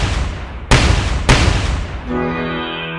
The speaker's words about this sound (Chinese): 村民们开枪射击，猛兽迅速跳进了山里，再也没有出现。